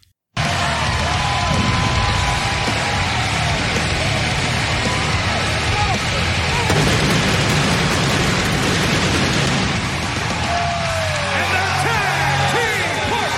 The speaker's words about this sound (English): Listen to that crowd. They went nuts.